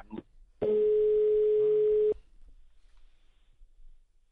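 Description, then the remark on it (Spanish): A telephone busy tone, heard after a phone call was cut off, sounds as one loud, steady, unbroken beep at a single mid pitch for about a second and a half, following a brief fragment of voice, then faint background noise. “Hemos tenido, a ver, hemos tenido algún problema de, de sonido, se nos ha cortado la,”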